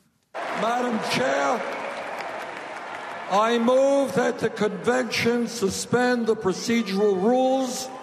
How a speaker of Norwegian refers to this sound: I natt ble Hillary Clinton formelt nominert i Philadelphia, og det var stor jubel i salen da nominasjonsavstemningen ble avsluttet med en eh, overraskelse.